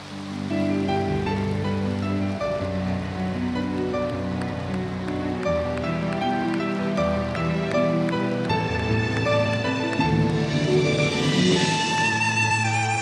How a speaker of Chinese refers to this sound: 现在，让我们用最热烈的掌声，恭请尊敬的卢金红台长。